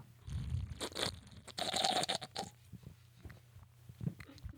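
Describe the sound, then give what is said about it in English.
Wet mouth sounds of someone slurping a drink, a few noisy sucking bursts in the first half followed by quieter smacking and clicks, with no talking. “So this is going to be Team Slurp episode.”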